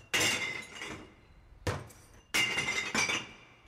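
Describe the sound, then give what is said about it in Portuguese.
Glass bottles drop into a glass recycling bin one after another, each landing with a loud clinking crash that rings briefly before fading, about four impacts in a few seconds, at a spot with large waste containers where white and coloured glass are sorted separately. “Você coloca o vidro branco, o vidro colorido, tudo separado.”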